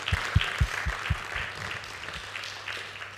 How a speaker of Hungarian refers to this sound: Tapsoljuk meg a panel részvevőit.